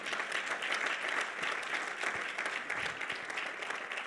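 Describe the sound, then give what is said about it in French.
An audience applauding to bless God during a French-language church sermon, steadily for several seconds: a dense, continuous patter of many hands clapping at an even level with no voices standing out. “Est-ce qu'on peut bénir Dieu par nos acclamations”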